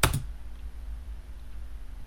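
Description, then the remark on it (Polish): A single sharp, crisp click of a keyboard key pressed to send a message, at the very start, followed by a quiet low hum with no voices. “Naciskamy przycisk do wysłania wiadomości.”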